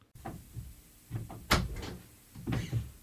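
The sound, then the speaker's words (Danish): A door opens and closes, with soft handling clunks, a sharp knock in the middle and another firm bump as it shuts; no one speaks. “Kom ind og luk døren.”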